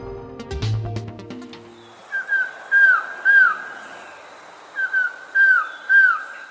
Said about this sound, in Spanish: Estamos escuchando a un pájaro que en Colombia se llama trogón collarejo, pero en Centroamérica tiene otros nombres. Mide 25 centímetros y el macho tiene pico amarillo, cara y garganta negruzca